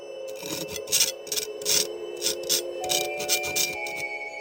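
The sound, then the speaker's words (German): A knife scratching figures of a story into snow as a girl tells it (story knifing): a quick, irregular series of bright, hissy rasping strokes at moderate loudness, with a steady faint tonal hum running underneath. “Ein Mädchen erzählt und gleichzeitig ritzt es mit einem Messer seine Geschichte in den Schnee oder die Erde.”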